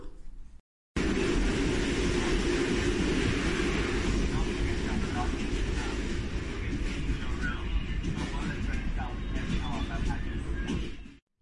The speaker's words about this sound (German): Zuerst habe ich an Wasser gedacht, aber am Schluss hat es mehr nach Schiene getönt. Ja, ich würde sagen, es ist in ein Zug. Ja. Da haben die vollkommen recht. Und zwar ist das ähm, im Nachtzug in Vietnam.